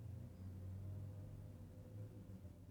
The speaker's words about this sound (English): Ambient noise, truck noise, all that good stuff.